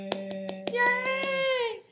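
Hands clap in a quick, steady rhythm, about seven sharp claps, while a sustained voiced tone hums along underneath and fades out just after the clapping stops.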